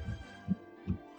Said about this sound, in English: that noise you're hearing is me scrolling through the list. We're all scrolling through the list right now,